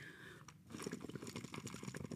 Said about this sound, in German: Ich muss nochmal blubbern. Ähm, genau, wir blubbern verbal oder wir blubbern mit der Limo.